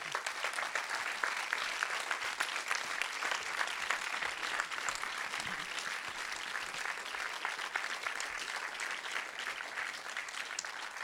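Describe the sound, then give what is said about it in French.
Sustained audience applause for a young director whose first film won four prizes, including the Caméra d'or at Cannes; a dense steady patter of many hands clapping at an even level for around eleven seconds, with no voices standing out. “Euh, ben, je, voudrais, voudrais qu'on l'applaudisse tout de suite.”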